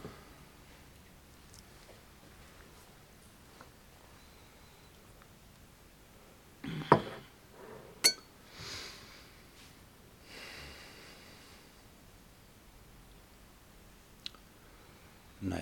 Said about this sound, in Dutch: Dus ik neem even een slokje water.